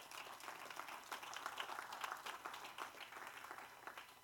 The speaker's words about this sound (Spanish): Den un aplauso al Señor esta tarde.